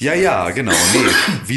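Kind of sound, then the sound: human body sound, cough or throat clearing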